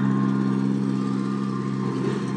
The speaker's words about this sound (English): that was a tractor.